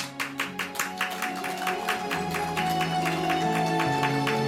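An audience claps in a steady, rhythmic beat alongside sustained music, welcoming pupils of a boarding school for blind children onto the stage at a winter show; the claps are sharp and regular at first, then blend into a denser wash as the music swells.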